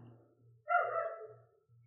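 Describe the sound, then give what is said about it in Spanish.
A single drawn-out bark from a dog named Culazo rings out clear over a steady low background hum, with no one talking. “Pero sí, el perro culazo está largando en este momento.”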